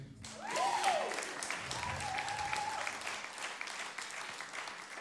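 A crowd claps steadily for about five seconds, a dense, even patter of many hands with brief whistle-like cheers rising above it near the start.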